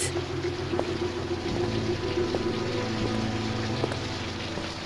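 Heavy rain pours down steadily, a dense, constant hiss with scattered sharper drops spattering and a low rumble underneath, no voices present.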